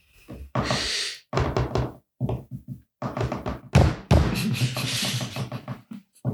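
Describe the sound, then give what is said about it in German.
Knuckles rap out Morse code for "door open" on a tabletop: loud, rapid knocks in uneven bursts separated by short pauses, with no one talking over them. “Das war der Morsecode für Tür auf.”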